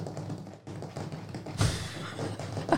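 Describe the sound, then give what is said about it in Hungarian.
All the fingernails of a hand scrape and tap on a tabletop, a dry, irregular scratching texture with a louder scuff partway through and no voices. “Vagy csak simán az asztalt kaparod.”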